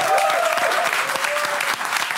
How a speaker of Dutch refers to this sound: Groot applaus voor Fred Teven.